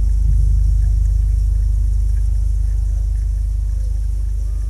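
A steady, loud low rumble of street traffic, cars driving by in a continuous drone with no single vehicle standing out and no voices.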